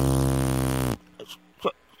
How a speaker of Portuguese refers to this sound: Eu tô dizendo, você peidou aí?